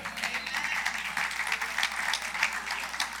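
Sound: audience clapping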